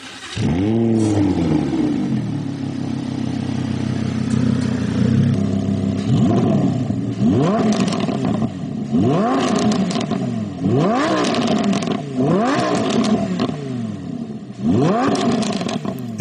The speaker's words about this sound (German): Der Lambo glitt nur dahin, ganz zu schweigen von seinem kräftigen und unverkennbaren Motorsound. Das war in der Tat ein Lambo, nicht zu verwechseln.